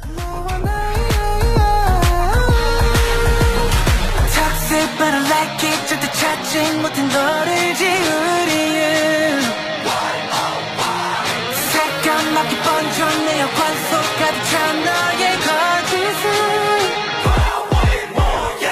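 A K-pop song plays loudly and continuously for nearly twenty seconds, with sung vocals over dense, driving backing instrumentation and heavy bass, and no talking over it.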